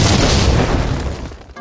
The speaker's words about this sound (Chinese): 下面马上进入到今天的生活大爆炸环节， 瞬间爆炸。